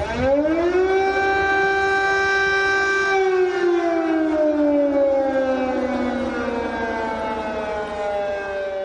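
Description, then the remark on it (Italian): A loud air raid siren wails steadily at night in Kyiv, Ukraine, its tone rising at the start, holding, then slowly sliding downward, with a faint echoing wash suggesting open city space and no voices. “Insomma, l'audio delle sirene che questa notte sono risonate a Kiev, la capitale ucraina.”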